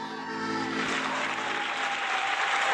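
Steady audience applause, a dense wash of clapping that holds at a fairly even, loud level throughout, with a faint musical tone lingering underneath at first.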